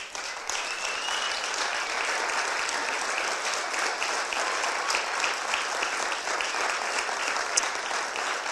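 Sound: standing audience applause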